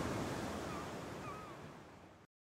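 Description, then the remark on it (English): Steady roar of sea surf mixed with gusting wind buffeting the microphone, a broad continuous wash of noise that fades slightly before cutting off abruptly. “It's so windy! Look at the sea and the waves!”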